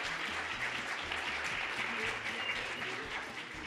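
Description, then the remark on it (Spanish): An audience applauds steadily at the opening of a Christmas, year-end concert, a dense wash of many hands clapping at an even loudness for several seconds, with a faint murmur of voices underneath. “¡Qué bonitos aplausos!”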